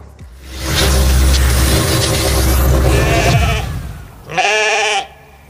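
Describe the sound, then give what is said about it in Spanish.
A sheep gives one loud, wavering bleat near the end, following several seconds of steady low rumbling noise, like wind or a passing engine, in the countryside by a small village on a cold day. “Estoy viendo vejitas, ¿eh?”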